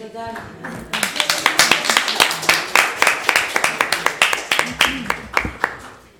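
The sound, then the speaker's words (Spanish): A steady burst of audience clapping, many sharp overlapping claps in a quick, even rhythm lasting several seconds, with a brief bit of voice at the start before the applause takes over. “Oye, es para aplaudirte, ¿eh?”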